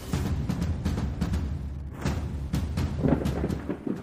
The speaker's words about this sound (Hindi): बारिश काफी तेज हो चुकी थी कार के शीशे पर इतना पानी पड़ चुका था कि सामने देखना भी मुश्किल हो रहा था